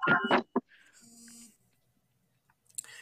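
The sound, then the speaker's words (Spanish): A short WhatsApp notification chime plays from a computer linked to WhatsApp: a quick cluster of bright tones followed by a steadier synthetic tone, fairly soft, with faint noises afterward and no voices. “Se escuchó nuevamente otra vez el WhatsApp, perdón, es que lo tengo vinculado a mi computadora, donde grabo, donde grabo el bello y hermosísimo podcast Cosas Pendejas.”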